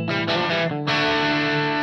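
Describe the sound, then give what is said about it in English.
Crunchy overdriven electric guitar chords ring out through a pedal on channel one, loud, with a brief choppy stutter before settling into a sustained, gritty strum. “quite crunchy. It's very crunchy.”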